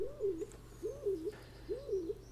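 A stock dove's low, hollow cooing repeats three times in an even rhythm, each soft two-part phrase rising and falling, against a quiet background with no talking.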